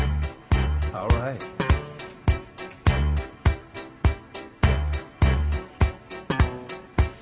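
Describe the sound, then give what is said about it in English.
Sultry, groovy music plays with a steady, thumping bass beat about twice a second, loud, while a man briefly speaks over it near the start. “Let me get my sexy music.”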